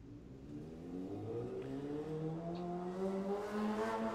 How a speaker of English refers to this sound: Hey! that was so perfect. that motorcycle is hilarious. Uh, what's up? Could not have timed that better.